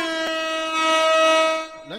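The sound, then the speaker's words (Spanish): A horn sound effect: one loud, sustained blast at a steady mid pitch with a bright, buzzy tone, ending in a brief upward-sliding blip. “Déjale toco la corneta y el efecto de corneta.”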